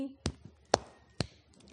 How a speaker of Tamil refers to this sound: teacher செய்கிற மாதிரி நீங்களும் என்ன செய்யணும் ஆக்ஷன் பண்ணிக்கிட்டே பாட்டும் பாடணும் ஓகேவா ஓகே சந்தோஷம் உண்டானால் கையடி